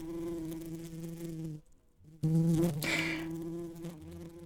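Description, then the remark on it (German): Steady droning buzz of honeybees performing a waggle dance, briefly dropping away to near silence before returning louder and more intense, with no voices present. “Tanzende Bienen”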